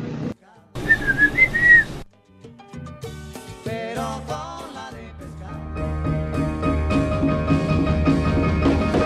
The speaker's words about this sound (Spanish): un favor, mándenle un, un silbidito a todos los de la clínica que no nos atienden.